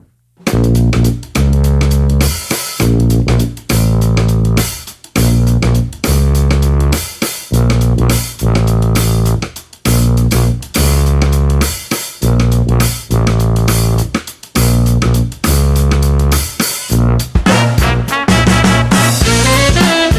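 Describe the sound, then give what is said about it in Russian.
A loud live band with brass plays a driving, rhythmic piece on stage as the wind rises, with punchy repeated stabs and short breaks, full for the whole stretch, no talking over it. “Но, наконец, группа начинает играть, и я забываю про комаров и ветер.”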